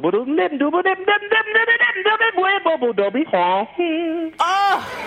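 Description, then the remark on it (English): A single voice scats a quick, bouncy run of wordless syllables, imitating a saxophone line with sliding pitches and short punchy notes, fairly loud, ending in a brief higher wail. “So like if you're trying to do something that a saxophone would play with your voice, it might sound like”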